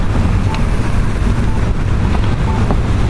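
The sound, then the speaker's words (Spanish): A steady, fairly loud low rumble of traffic at a busy street intersection as cars pass behind and to the right, blending into a continuous roar with no single vehicle standing out and no voices. “Ahí están pasando carros por la parte mía de atrás y luego por la parte derecha.”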